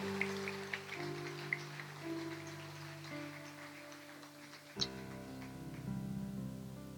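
A crowd claps steadily to welcome a guest, a dense, even patter for several seconds while sustained organ-like chords play underneath, with a brief thump just before the end.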